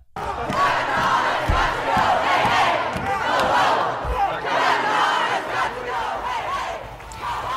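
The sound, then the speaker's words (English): A large crowd of protesters gathered at the doors of the Supreme Court shouts continuously, a dense roar of many voices rising and falling in waves, with occasional low thumps beneath, and no single voice standing out. “These are live images, folks, at the doors of the Supreme Court, where you can see protesters have gathered.”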